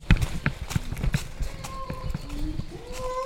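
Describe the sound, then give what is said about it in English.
A quick series of deep, hollow thumps in an uneven rhythm as a chimpanzee drums on tree buttress roots, fading as the faint rising calls of a pant hoot and forest sounds take over. “Yeah, yeah, I can almost see a chimp drumming.”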